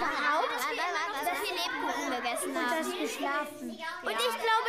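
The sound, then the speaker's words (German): Excited children chattering all at once, a lively overlapping babble of high young voices with bits of giggling, steady throughout. “Kinder, Kinder, was seid ihr aufgeregt? Beruhigt euch doch und hört mir zu.”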